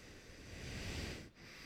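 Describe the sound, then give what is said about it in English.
Heavy breathing into a microphone: a long, rushing exhale, a brief pause, then another breath starting. Noisy and hissy, with no one talking. “Stop breathing into the microphone like a fucking 180 pound fifth grader.”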